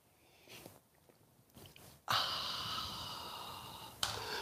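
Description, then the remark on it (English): After a couple of quiet seconds with faint breathy sounds, an air conditioner's steady hum and airy whoosh kicks in abruptly and drones on evenly at a moderate level, with no talking. “Well, you're probably hearing a little bit of a hum from my air conditioning that'll turn off in a moment.”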